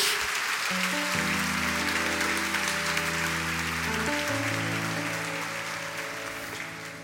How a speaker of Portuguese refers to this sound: Se você recebe de fato essa palavra, você pode dar uma salva de palmas ao nosso Senhor. Mais alto, graças a Deus.